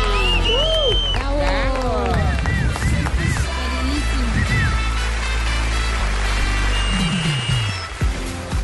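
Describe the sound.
A crowd applauds loudly and steadily throughout to welcome Germán Vargas onto the stage, with scattered whoops and high cheering voices rising over the dense clapping before it thins slightly near the end.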